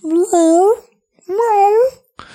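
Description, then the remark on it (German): A person imitates a muffled cat meow, giving two drawn-out, wavering meows in a row, fairly loud, with a short breathy sound trailing at the very end. “so, so miauen im Prinzip, ne?”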